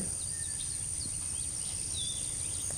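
Faint birds chirp and tweet in scattered short calls over a steady high-pitched insect drone and a low outdoor rumble; no one speaks.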